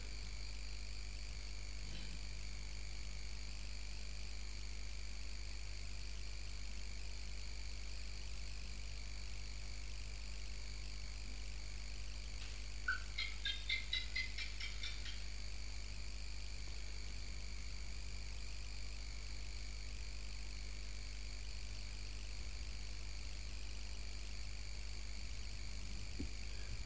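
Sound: insects chirping outdoors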